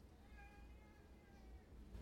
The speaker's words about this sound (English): Hi, cat